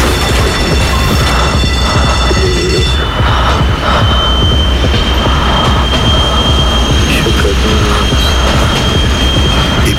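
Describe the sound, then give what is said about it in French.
A train roars past for the full ten seconds, its metal cars with windows streaming by, a loud, continuous rush of wheels and rattling cars with a thin metallic squeal running high above it. “J'avais les yeux grands ouverts tandis qu'un même dessin de fenêtre encastré dans une planche métallique défilait massivement devant moi.”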